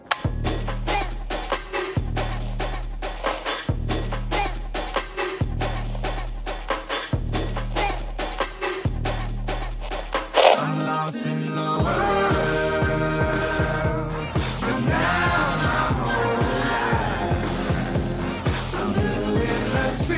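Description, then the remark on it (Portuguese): Two songs built on the sampled drum break play back to back: a looping breakbeat with heavy bass pulses, then after a brief pause a denser track with melodic instruments over the drums. “Ouve aí então algumas das músicas que utilizam dessa canção.”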